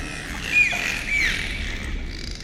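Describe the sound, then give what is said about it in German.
Dolphin, a small toothed whale, whistles: two short, high tonal chirps around half a second apart, the first with a quick upward sweep, over a steady wash of underwater hiss and low rumble. “Und manche kleine Zahnwale, wie zum Beispiel die Delfine, die pfeifen.”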